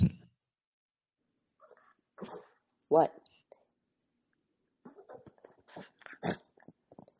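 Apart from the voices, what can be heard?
dog making noises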